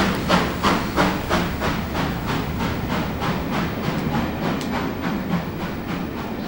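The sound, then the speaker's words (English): A train rumbles loudly along the rails with a steady, repeating clatter of wheels over track joints, with a low continuous roar and some hissy noise underneath. “Hey, welcome back from that train ride.”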